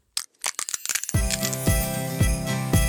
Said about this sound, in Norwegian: lyden av ei nøtt som knekkes, ei nøtteknekking